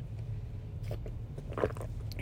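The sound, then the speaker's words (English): A quiet sip from a coffee drink, with a few short wet mouth and swallowing noises over a steady low background hum, no talking. “Let's take a sip.”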